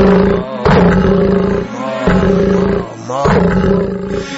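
A lion roars three times in a row, each call a loud, rough, rumbling blast with brief dips between, filling the whole clip without any talking over it.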